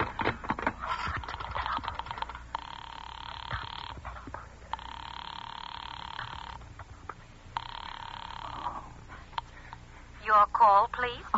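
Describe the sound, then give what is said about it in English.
A telephone is dialed with a quick series of clicks, followed by three long, steady ringing tones on the line. A brief voice comes in at the end. “But if I don't call someone now, while they're still down there, there'll be no time.”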